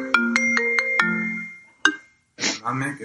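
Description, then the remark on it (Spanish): A mobile phone rings with a quick melodic run of bright, chiming electronic notes that trail off, one more tone sounds after a pause, and then a voice starts talking. “He quitado de todo, las alarmas y todo, pero nada. Se empeñan en, ah. en seguir localizando.”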